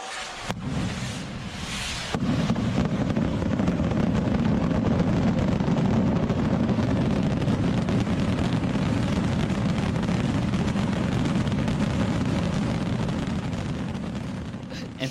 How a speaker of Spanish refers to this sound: Es una traca de feria.